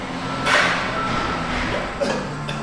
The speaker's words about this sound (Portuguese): No armazém, dezenas de empilhadores carregam mercadorias sem parar. É preciso encher os mais de 2 mil caminhões que todos os dias rolam contra o tempo.